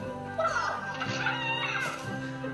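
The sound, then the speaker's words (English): A chicken in a game video made with The Sims clucks and squawks in short, rising bursts, fairly loud, over a steady sustained tone in the background. “But he's no match for this tough bird.”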